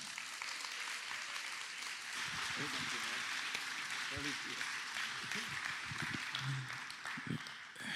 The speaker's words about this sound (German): Lass uns ihn begrüßen mit einem richtig warmen Applaus.